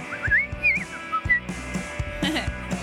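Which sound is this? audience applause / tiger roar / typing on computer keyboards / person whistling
person whistling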